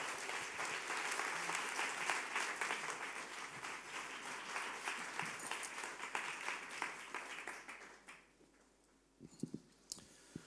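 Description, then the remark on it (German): An audience gives a warm applause as guests are invited onto a stage, a dense, steady wash of clapping that fades out after about eight seconds, followed by a few scattered claps and small noises. “Und lasst doch uns innen einen herzlichen Applaus geben.”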